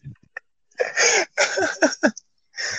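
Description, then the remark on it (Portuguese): Loud breathing into a microphone: several harsh, hissy breaths in quick succession, with short pauses between them and no talking. “Não, é que eu tô ouvindo uma respiração.”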